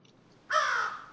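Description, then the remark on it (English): A single harsh crow caw bursts in suddenly after a quiet moment, loud, with a raspy, drawn-out tone that fades slightly toward the end. “Get out of here, crow.”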